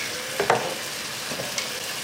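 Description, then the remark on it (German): Duck meat sizzles in a frying pan, a steady bright hiss broken by a couple of sharper pops and crackles, with no voices over it. “Dann braten wir das gleich mit.”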